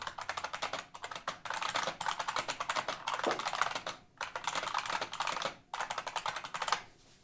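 Fast, steady typing on a clicky IBM Model M mechanical keyboard, a dense stream of loud, sharp keystrokes, with a couple of brief pauses and no talking.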